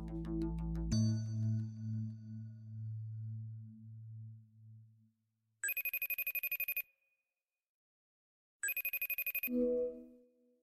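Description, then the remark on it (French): Two bursts of an electronic telephone ring, each about a second of rapid trilling, separated by silence, following a fading low musical tone with no talking, as a call is placed to two Le Monde journalists. “Je vous appelle parce que vous avez enquêté tous les deux, Stéphane Aurel et Stéphane Foucard, hein.”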